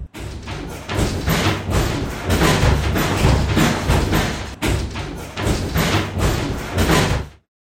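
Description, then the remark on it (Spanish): Kitchen doors slam on their own, again and again, in a rapid, irregular series of loud, heavy bangs and thuds lasting several seconds, then stop abruptly. No one is in the kitchen and no one speaks. “Todas las puertas, todas estaban azotándose solas.”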